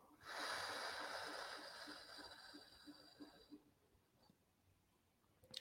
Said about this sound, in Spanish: Inhalo. Sostengo. Exhalo.